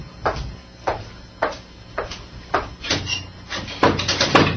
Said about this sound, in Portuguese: Assim que a porta se fechou, olhei para o meu filho, não com ódio e nem rancor, apenas com o coração dilacerado.